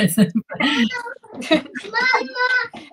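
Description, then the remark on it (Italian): A young boy, the speaker's son, talks in short, high-pitched bursts of babbling speech, with brief pauses between phrases. “questo è il mio bimbo.”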